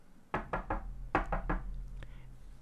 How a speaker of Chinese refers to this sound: 现在这个坏家伙又第三次来到小山羊的家，敲门说：